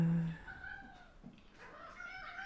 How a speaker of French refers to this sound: Euh, là, il y a les chats qui se battent.